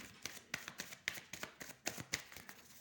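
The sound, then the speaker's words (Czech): Tarot cards are shuffled and laid out during a reading on partner relationships, in a quick series of crisp, papery slaps and soft taps, a dozen or so sharp bursts in an uneven rhythm, with no voices. “Uh, co se týče partnerských vztahů, tady ještě hodím další karty.”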